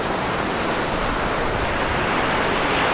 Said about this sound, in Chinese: 甚至我们现在背景听到的这个海浪声，我把它稍微调大一点，给大家听一听。